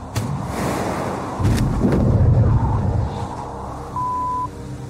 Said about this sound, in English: Parachute opens.